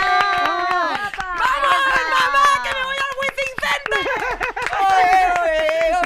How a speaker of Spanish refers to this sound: una cómica increíble, eh, y queremos que le deis un fuerte aplauso a